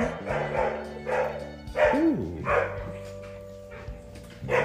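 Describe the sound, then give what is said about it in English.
A dog barks repeatedly in a steady series of sharp, fairly loud barks, with a short vocal exclamation from a person partway through. “Oh, somebody's dog is not happy.”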